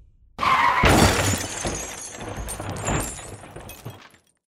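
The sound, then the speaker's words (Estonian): A car crashes into a stone wall at night: a sudden loud crash bursts in, followed by glass shattering with bright, scattered tinkling fragments that rattle on for a few seconds before settling into silence. “külmad kivid näisid prahvatusele järgnevas vaikuses kõnekana, nagu ootaksid midagi. õhk auras, veri tilkus klaasikildudele ja raadio jäi vait.”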